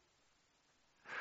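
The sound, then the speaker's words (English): After a second of near silence, a single sudden sneeze bursts out, a short, breathy, hissing blast that is much louder than the quiet before it. “Bless you.”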